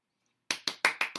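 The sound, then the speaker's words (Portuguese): Hands clap five times in quick, steady succession after a short silence, each clap sharp and moderately loud, with no voices present. “Palmas, então estou aqui dando palmas.”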